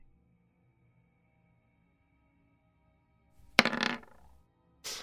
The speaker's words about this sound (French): Hop, donc il va commencer par un petit jet de D10.